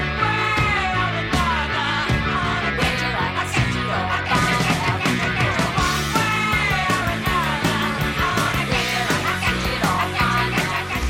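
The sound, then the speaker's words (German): A chaotic, horror-tinged rock ending: dense, loud band music with pounding drums and clashing layers of sound, frantic and unrelenting throughout, with no pauses or quiet moments. “Dieser Horror und dieser Wahnsinn, der da musikalisch dargestellt wird, den kann man insbesondere im Schluss nochmal hören.”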